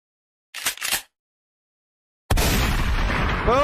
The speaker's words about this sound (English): All right, play the shotgun. Here we go.